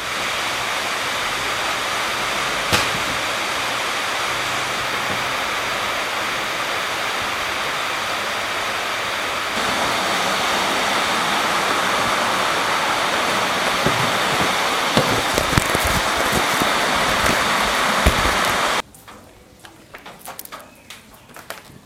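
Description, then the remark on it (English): Heavy rain pours down outdoors in a steady, dense hiss for most of the stretch, then abruptly drops away near the end, leaving quieter scattered patters and drips. “Okay, I think our s- s- rain is slowly stopping.”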